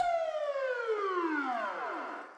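A police siren jingle for Der Blaulichtreport sounds alone, one loud, harmonically rich wail that glides steadily downward in pitch over about two seconds before trailing off slightly at the end.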